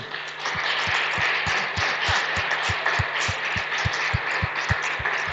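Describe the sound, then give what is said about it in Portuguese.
A church audience applauds a pastor of a Baptist church, clapping steadily and densely for several seconds, a continuous wash of clapping with a regular low thumping pulse running underneath. “Ich würde würd mich freuen, wenn wir ihm einen Applaus geben.”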